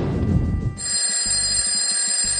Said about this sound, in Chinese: 第二天早晨，哼哼猪卧室里的闹钟准时响了起来。